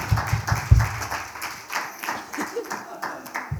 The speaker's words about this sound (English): Why don't you give him a hand clap? Dale un aplauso, por favor.